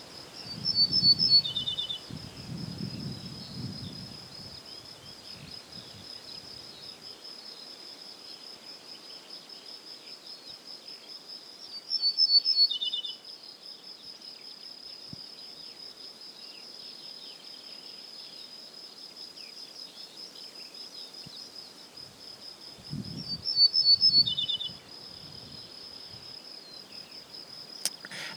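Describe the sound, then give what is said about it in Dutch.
An ortolan bunting sings three short, clear phrases, about twelve seconds apart, each dropping in pitch at the end, over a steady high-pitched insect drone and faint low rumbles. “Vijf minuten later er komt een ortolaan op dat ene taxgezin.”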